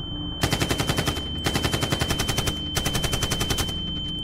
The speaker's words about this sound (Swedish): Sen började ett avvikande ljud höras bland alla glada människor som skrattade, dansade och skålade. Det lät som fyrverkerier. DJn sänkte musiken. Skottlossning.